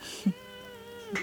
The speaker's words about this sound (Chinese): 这个是个猫叫吗？ 是有吗？不好意思。 Costy 猫也猫也猫也赞同。 对，我们的幸运物 Costy 也想加入讨论。